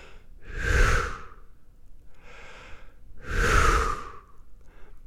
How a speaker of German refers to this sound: holt langsam Luft und atmet mit einer großen Entspannung aus.